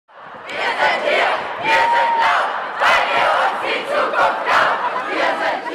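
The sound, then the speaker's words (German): A large crowd of young people at a Fridays for Future climate demonstration chants in German in unison, "Wir sind hier, wir sind laut, weil ihr uns die Zukunft raubt", loud and rhythmic, with repeated stressed beats and shouted syllables echoing. “So skandieren junge Leute bei den Demos Fridays for Future.”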